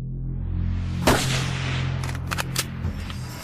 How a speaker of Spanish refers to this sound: Cuando los disparos resonaron en la plaza y el coche presidencial salió hacia el hospital Parkland, las cámaras siguieron filmando en medio del estupor.